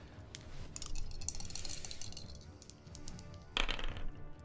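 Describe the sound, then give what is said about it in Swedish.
A twenty-sided die clatters and tumbles across a tabletop in a rapid series of small hard clicks, ending with a sharper knock as it settles, with no voices. “Jag vill inte ha din tärning.”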